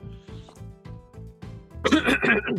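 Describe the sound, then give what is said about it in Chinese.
Someone coughs: a run of short, throaty pulses followed by a louder, harsher burst of coughing near the end. “好，不好咳嗽，你就再再帮我剪掉。”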